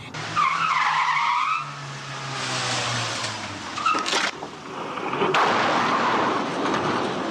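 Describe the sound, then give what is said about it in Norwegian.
A car's tyres screech in a long skid as the car is cut in two in a film stunt, followed by loud metallic crashes and scraping, then a rumbling roar of impact debris and engine noise. “de har kappa bilen i to.”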